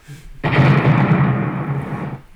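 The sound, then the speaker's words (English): A bomb explosion sound effect bursts in suddenly after a brief quiet moment, a loud, deep booming roar that rumbles on for about two seconds before starting to fade. “I gotta get a bomb for him because”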